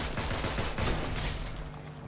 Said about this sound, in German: Sollen wir zu den Schüssen gehen?